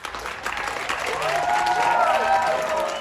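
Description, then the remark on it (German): A crowd of residents and passersby on the street claps steadily and loudly for about three seconds after a Romeo and Juliet scene performed between windows across the street, with rising whoops and cheers layered over the dense applause. “Unten auf der Straße stehen Anwohner und Passanten, lauschen dem unerwarteten Spektakel und sind am Ende hörbar begeistert.”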